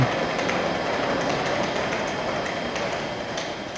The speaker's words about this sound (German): Ich befinde mich gerade am Hauptbahnhof und hier soll in wenigen Sekunden ein Zug einfahren.